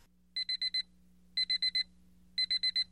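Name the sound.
alarm clock ringing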